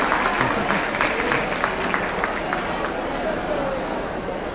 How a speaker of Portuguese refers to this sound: Então eu queria pedir para vocês uma salva de palmas.